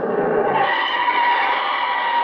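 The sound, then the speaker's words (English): A truck skids with a loud, continuous screech of tires that rises slightly and holds steady for a couple of seconds as a man is pushed in front of it, without any voices. “I didn't get wise to him even when he pushed me in front of a truck.”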